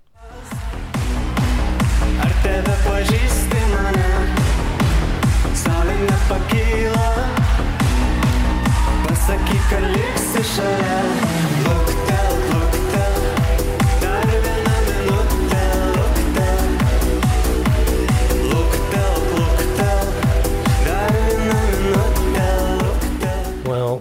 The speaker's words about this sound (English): I really like this. Um, I think it really lends heavily into Eastern European pop and that kind of dance pop thing with a bit of dark beats going on,